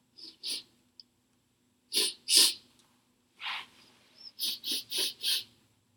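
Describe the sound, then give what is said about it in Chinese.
A person imitates a big white dog sniffing with its nose: short, breathy, hissing sniffs in uneven pairs and singles, then a quick run of four rhythmic sniffs at the end. No speech. “这只大白狗闻了一下小黑，结果说什么？”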